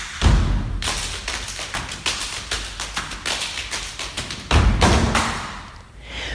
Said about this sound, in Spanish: Claro, estamos acostumbrados a ver palmas, pero tú puedes golpearte en el pecho, puedes golpearte en las piernas, puedes chasquear los dedos, puedes golpearte con la mano en el pie. Y mira cómo suena un coro de música eh, de percusión corporal.